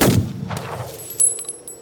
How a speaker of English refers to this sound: There's the bang of the gun, the sulfur smell of smoke, the ping of the shell, the dry sound like wind through brush as the bullet takes a chunk out of the cactus.